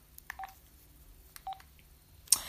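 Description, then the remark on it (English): Two quick bursts of telephone keypad dialing tones, each a short cluster of beeps, as a guest calls back, followed by a brief burst of noise like a line connecting. No one speaks. “He's going to call back right now.”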